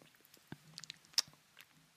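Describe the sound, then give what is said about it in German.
Wet mouth sounds: a person's tongue makes a few soft smacks and clicks against the teeth at an irregular pace, with one sharper click standing out, and no talking. “Ja, dass ich mit der Zunge, ja, ist mega eklig auf dem Ohr, sorry Leute, dass ich mit der Zunge die ganze Zeit so an meinen Zähnen dran bin und so äh, entstehen so Schmatzgeräusche.”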